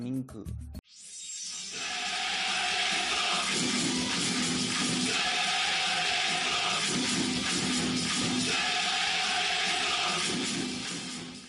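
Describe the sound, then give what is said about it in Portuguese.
A huge stadium crowd of South Korean football fans chants "Dae Han Minguk" ("Republic of Korea") in unison, a loud, dense roar that starts abruptly and carries on steadily with rhythmic pulses throughout. “E também não podemos esquecer da linda torcida da Coreia do Sul, gritando Dae Han”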